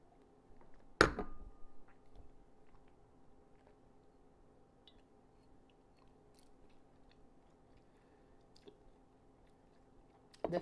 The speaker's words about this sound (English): I will go in and take another sip.